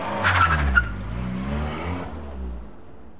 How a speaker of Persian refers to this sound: سوار ماشینم شدم و به سمت خونه آدولف به راه افتادم